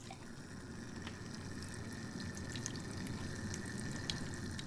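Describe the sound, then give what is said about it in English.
A small desktop water feature hanging by a living-room window trickles and splashes steadily with a faint pump hum underneath, a continuous, quiet flow with small bright droplet sounds scattered throughout, with no one talking. “And on top of that, we also have a small desktop water feature hanging by the window. Let me just switch it on right now.”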